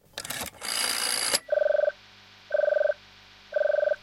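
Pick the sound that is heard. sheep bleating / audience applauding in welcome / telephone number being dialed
telephone number being dialed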